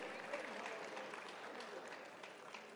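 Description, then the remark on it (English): A church audience claps together in praise in a steady, dense wash of applause that holds at an even, moderate loudness for a few seconds, with a faint murmur of voices mixed in. “Get a lot of hand clap.”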